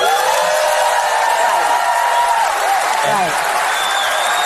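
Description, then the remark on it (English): A large audience applauds steadily and loudly for the whole stretch, a dense wash of clapping with scattered cheers and whoops rising through it, and no one speaking over it. “Is that an applause line? Did they have to hit the applause line?”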